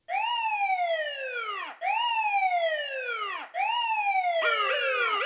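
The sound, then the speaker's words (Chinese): A police car's siren wails loudly in three long descending sweeps, each falling from high to low pitch, with a second overlapping siren tone joining near the end; no talking. “我是一台帅气的车子，只要遇到坏人，我就会大声叫。”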